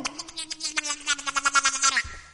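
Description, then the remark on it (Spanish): A voice imitates a duck quacking in a rapid string of nasal, buzzy quacks lasting about two seconds, fairly loud, ending abruptly. “un pato”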